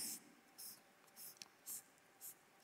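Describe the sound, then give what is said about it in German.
A blue marker pen squeaks across a board in short, regular strokes, about five bursts evenly spaced, fairly quiet, with no talking. “ich versuche es blau, gell Thomas, vielleicht ist der blaue Stift etwas klarer”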